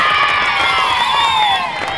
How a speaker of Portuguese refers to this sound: Cadê os aplausos aí, rapaz? Criancinhas gritando novamente.